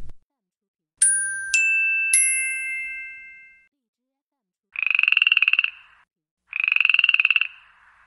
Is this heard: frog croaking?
yes